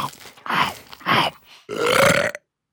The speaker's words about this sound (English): he eats the sandwich, then realizes he's full and burps very loudly.